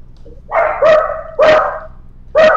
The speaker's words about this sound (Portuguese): O cachorro está se manifestando. É o meu cachorrinho.